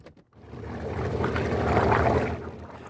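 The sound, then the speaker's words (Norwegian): A quick click of a key turning in a boat's ignition, then the boat engine catches and settles into a steady, rumbling idle with a faint watery wash, and no voices. The boat is at Utøya, Norway. “skrur om nøkkelen i båten sin.”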